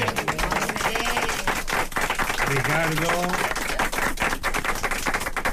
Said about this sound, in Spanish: Un aplauso para nuestros técnicos.